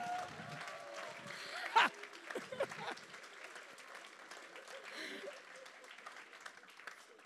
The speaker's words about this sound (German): Ein Applaus für unsere Translation.